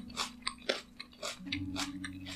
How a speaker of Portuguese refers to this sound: Eu já dou uma mordida numa cenoura. Dou só uma limpadinha na terra assim na minha calça e já dou aquela mordida, aquela mastigada com gosto assim.